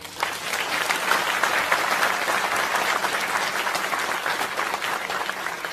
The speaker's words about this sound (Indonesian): And saya pikir saya minta teman-teman tepuk tangan untuk beliau.